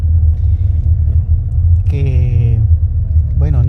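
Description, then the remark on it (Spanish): A steady low rumble of car engines idling and creeping along as many cars cross through a parking lot, with brief bursts of a voice cutting in over the drone. “estoy distraído en este momento porque hay muchos carros atravesándose en el parqueo.”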